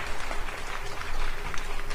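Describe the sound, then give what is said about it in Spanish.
A steady burst of applause welcoming a special guest: many hands clapping in a dense, continuous patter that holds an even loudness for the whole two seconds, with no voices rising above it. “Aplausos, por favor.”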